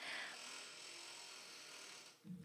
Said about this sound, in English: Okay, so a door just blew open. See, I'm in this this new room and it had this uh, the wind blew and the door just opened. I didn't even know what that was. So if you heard creaky door in the background, that's what it was.